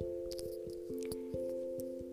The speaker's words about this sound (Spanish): Cada gota que cae resuena y tiene un eco. Resuena en nuestro interior.